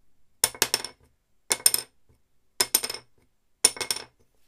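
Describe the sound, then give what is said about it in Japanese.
An old wooden violin soundpost dropped onto a surface four times at steady intervals, each landing a bright clack followed by a few quick bounces, with quiet gaps between drops. “でも古い昆虫よりも新しい昆虫の方が皆さんどっちがどっち高い音に聞こえましたもう一回やってみましょうかね古い方”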